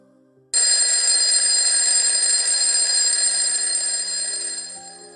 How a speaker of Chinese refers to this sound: 叮铃铃铃铃，叮铃铃铃铃，闹钟响了，但是大老鼠和小老鼠谁也没有听见，因为他们俩呀都睡得太香了。